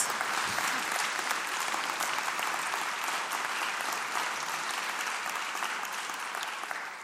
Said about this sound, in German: Gell, du hast mir, ja, genau, einen fetten Applaus.